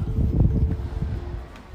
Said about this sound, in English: And the wind is up today. I think the reason I haven't felt cold the last couple of days is because there was no wind. It was beautifully still. Now there's a little bit of wind up.